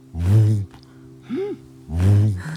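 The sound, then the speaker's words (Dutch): A person imitates a Eurasian bittern drawing in air before booming: two loud, low, gulping gasps, with a shorter, softer pitched gulp between them. “Als je heel dichtbij staat, hoor je hem ook inademen.”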